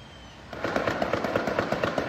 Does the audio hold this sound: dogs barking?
no